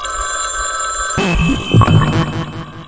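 A telephone rings with a steady, buzzy electronic tone. About a second in, a busier, louder jumble of sound crowds in over it.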